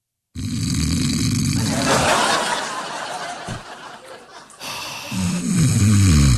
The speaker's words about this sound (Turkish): Dün de sen horluyordun. Allah Allah. Tamam ben horluyordum sen de beni kaldırıyordun. Sonra horlamam kesiliyordu. Aynısını ben sana yapıyorum senin kesilmiyor.